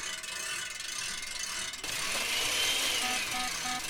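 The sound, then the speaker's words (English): A hand crank turns a blender liquefying vegetable stock and other ingredients, with a steady ratcheting, mechanical clatter that grows louder and busier partway through, adding a whirring hiss. No voices. “do you mind giving the old crank a couple of turns? We want to make sure the blender lasts for as long as it takes to liquefy all the ingredients.”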